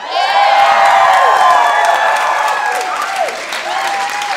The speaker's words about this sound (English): Besides rapturous applause from you people.